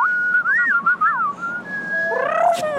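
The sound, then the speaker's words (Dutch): A person whistles an imitation of a pigeon: wavering, gliding mid-pitched notes in short rising and falling phrases, ending in a brighter warbling flourish, with no talking. “Ah ja, een duif, hè?”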